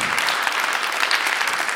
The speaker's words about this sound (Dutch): Een groot applaus voor Rob van Essen, dames en heren.